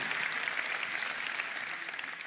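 An audience at a Good Friday church service applauds to welcome the online family, many hands clapping in a dense, steady wash that holds at an even level for a couple of seconds, with no voices standing out.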